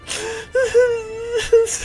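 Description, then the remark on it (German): A voice lets out exaggerated, drawn-out wailing sobs, a sustained whiny cry broken by short gasping catches, fairly loud with no other sounds. “Der Weihnachtsmann ist ein Lügner. Da muss ich ganz doll weinen.”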